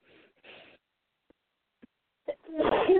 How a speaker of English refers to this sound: oh, excuse me. Bless you. Thank you.